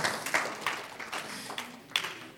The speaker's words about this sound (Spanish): Yo sé que hay muchos que levantan muy temprano y los vamos a darles un aplauso por los que levantan temprano y hacer un esfuerzo.